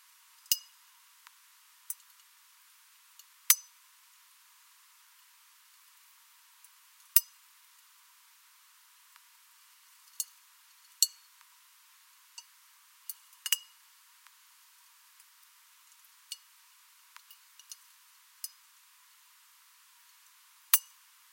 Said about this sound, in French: est un animal qui se déplace assez lentement, mais qui se déplace et c'est la famille des étoiles de mer, donc il a des toutes petites ventouses et il se déplace tranquillement pour aller manger ses algues. On va écouter un oursin alors.